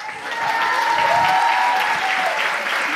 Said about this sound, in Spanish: No, un fuerte aplauso por ambas chicas.